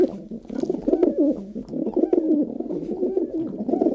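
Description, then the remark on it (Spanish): Pigeons cooing continuously in a dovecote, several soft overlapping throaty calls forming a steady murmuring chorus with no talking. “en el palomar.”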